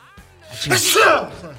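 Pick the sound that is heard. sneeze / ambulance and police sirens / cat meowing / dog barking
sneeze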